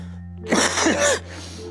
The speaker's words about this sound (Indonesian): Kemudian maaf ya agak batuk sedikit ini